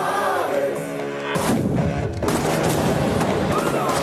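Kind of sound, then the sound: sound effect, gunfire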